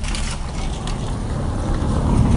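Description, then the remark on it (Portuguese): A noisy Fiat Palio car engine rumbles, a continuous rough drone with heavy low-end growl that builds slightly louder as the car drives past. No one speaks. “Olha o carro barulhento, né? Pior que é um palio.”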